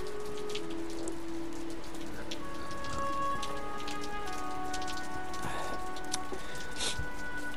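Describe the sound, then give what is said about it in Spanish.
Light, steady, slow drizzle patters softly and continuously through the afternoon on a small path in front of a house, with scattered tiny drop ticks and faint tonal hums in the background; no one speaks. “Pero el caminito estuvo vacío toda la tarde, mientras le caía arriba una lloviznita pareja, lenta, suave, como si Dios estuviera acariciando todas las cosas a la vez.”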